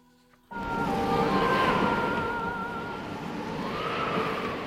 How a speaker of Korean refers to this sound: 그런데 그때였어요. 요란한 바람 소리 사이로